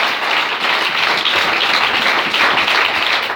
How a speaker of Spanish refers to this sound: Dale al Señor ese aplauso esta noche.